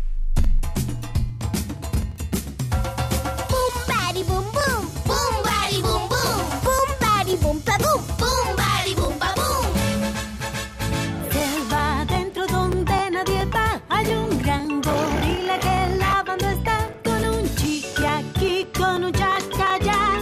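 A bouncy, upbeat children's song plays loudly and steadily for the whole stretch, with sung melody over bright percussion like cowbell and a driving beat.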